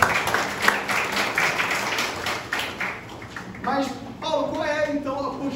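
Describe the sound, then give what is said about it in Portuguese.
A crowd claps in a steady, dense burst of applause for about three seconds before it fades and a single voice begins speaking over the last of it. “Uma salva de palmas.”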